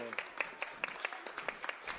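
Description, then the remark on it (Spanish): Audience applause at an event at the Biblioteca México with children and parents, light and fairly quiet, with sharp claps landing in a quick, steady rhythm for about two seconds, like a small group clapping together. No one speaks over it. “Aplausos.”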